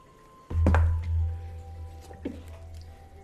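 New dice rolled onto a table: a heavy thunk and quick clatter as they land, a low rumble as they settle, then one lighter tap a moment later.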